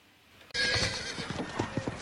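horse neighing

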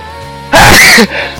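sneeze

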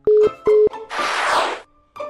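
telephone busy tone

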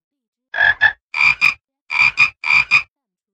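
frogs croaking

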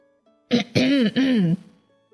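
throat clearing

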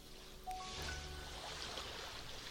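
sea waves

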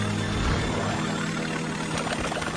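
mosquito buzzing

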